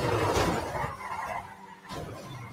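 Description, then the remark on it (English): A speeding car skids, with a rough burst of tire noise early on, then steady engine and road roar fading briefly before swelling again. No one speaks. “That car's so much fun. It's so fast.”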